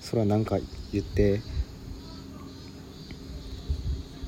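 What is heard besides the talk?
cicadas chirping outdoors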